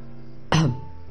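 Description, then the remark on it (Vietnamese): One short, dry cough from a man with an itchy throat, sharp at the start and fading within a fraction of a second, surrounded by quiet with no talking. “hạ tùng bách cảm thấy cổ họng rất ngứa anh ho khan một tiếng”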